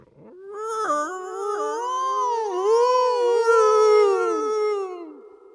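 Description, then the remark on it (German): A single long, eerie howling cry in a cathedral rises and wavers in pitch for about five seconds, loud, sliding up and down before fading out, with no other sounds around it. “Ein grässlicher Gedanke, der mich aufheulen ließ.”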